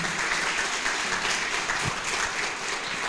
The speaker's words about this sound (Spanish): ¿Qué tal si les damos un fuerte aplauso a todas esas personas que están conectadas?